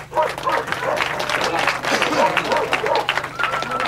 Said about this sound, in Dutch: De vergadering van de dorpsraad puilt uit vanavond. Woedende mensen roepen het staalconcern ter verantwoording.